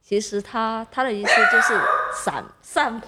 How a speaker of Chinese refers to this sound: 不好意思，我的狗有点激动。